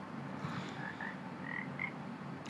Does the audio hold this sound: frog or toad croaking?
yes